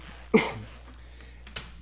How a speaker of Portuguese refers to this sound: Eu tive que dar uma torcida, tipo um político pra né, responder um é, troço é, tipo, foda. Né, tossiu pra dar uma, né, pensar te, um pouco.